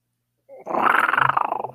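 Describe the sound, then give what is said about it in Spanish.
A tiger's loud, rough roar bursts in after a short silence as it leaps onto a man, rolling on as a harsh, pulsing growl. It is forceful, with no voices. “Con un terrible rugido, la fiera cae sobre su enemigo.”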